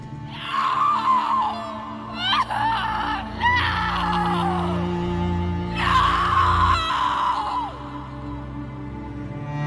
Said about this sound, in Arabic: الأم تصرخ بأعلى صوت وتنهار وتصر إنها لازم تشوف جثة بنتها